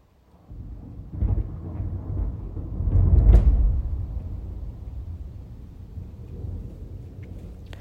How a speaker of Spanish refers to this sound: está con todo, ¿no? Tardó unos segundos, pero bueno, ya volviendo al tema, ya si vuelve a tronar, ya no te voy a poner que lo escuches.